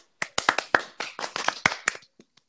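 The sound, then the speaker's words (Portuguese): A short burst of hand clapping for Gilberto, a Big Brother contestant: quick sharp claps in an uneven rhythm for about two seconds, then a couple of softer stray claps as it dies away. No one speaks. “uma salva de palmas pro Gilberto.”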